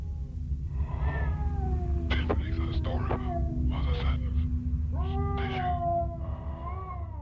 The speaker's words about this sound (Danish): Alt er stille. Indtil vi kan høre en fjern lyd af katte.